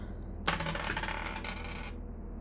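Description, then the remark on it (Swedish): Dice rattle and tumble across a hard tabletop in a bright clatter lasting about a second and a half before settling, with no one speaking; the dice are rolled for a difficult ego-survival check in a game. “Jag vill att eh, du slår ett svårt slag med egoöverlevnad.”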